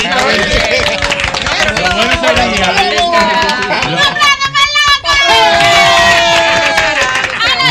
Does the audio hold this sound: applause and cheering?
yes